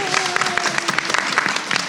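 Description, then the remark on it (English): A room full of people claps steadily for members of the Forever Playland team, a dense patter of many hands, with a faint tonal whistle or hum running underneath for the first second. “Um, if you guys want to just stand up real quick and everyone kind of see who you are and we can clap for you just well, a little hey.”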